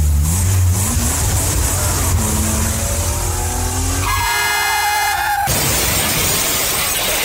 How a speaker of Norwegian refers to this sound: Så hvis du faktisk er her, og ikke har eh, kommet av et uhell at du faktisk hører på, så eh, får du bare lene deg tilbake og nyte hva som kun kan bli beskrevet som en, eh, en biltur. Så nyt.